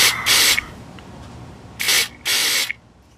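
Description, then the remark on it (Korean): Three sharp, breathy spritzes from a sedative spray bottle sprayed onto a tongue: two quick bursts at first, then after a pause two more in quick succession, each a bright hissing puff with no voices. “허반장은 이어폰을 귀에 꽂고 진정제 스프레이를 혀에 대뿌렸다”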